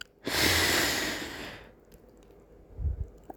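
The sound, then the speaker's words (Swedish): A deep, airy breath in, one long steady rush lasting over a second, then quiet with a couple of soft low thumps afterward. No talking. “Andas in, känn hela din kropp.”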